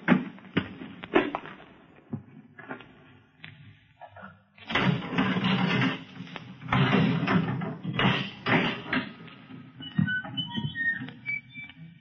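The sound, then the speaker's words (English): A door is unlatched and pushed open with rattling, scraping noise, followed by several footsteps and knocks. The sounds are fairly loud, with no voices. “Open the door.”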